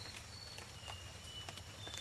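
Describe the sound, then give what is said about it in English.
A nightingale wren gives a few thin, high, pure whistled notes, faint and spaced irregularly over a low rumbling forest background with no talking. “It's a nightingale wren.”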